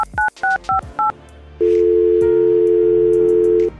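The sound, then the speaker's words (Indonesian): Four quick two-tone keypad beeps in a steady rhythm as an outgoing phone call is dialed, followed by a long, steady ringback tone from the phone line, clear with no voices. “Oke yuk langsung aja nih dia kita telepon orangnya.”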